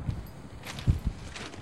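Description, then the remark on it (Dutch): Footsteps walking outdoors outside a train workshop in Watergraafsmeer, going to look at new train doors: a few dull, irregular thuds on hard ground over a steady background of outdoor noise, with no one talking. “Laten we er even heen lopen”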